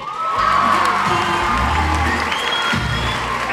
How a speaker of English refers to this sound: What you heard there was the atmosphere from the British Book Awards last night.